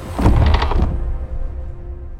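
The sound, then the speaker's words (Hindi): A single heavy thunk of an operating theatre door being shut from inside by a doctor, fairly loud, with a brief rattle before it settles into a low, dull resonance and quiet room tone. “विधि नंदिनी को ओटी में ले गई और अंदर से दरवाजा बंद कर लिया”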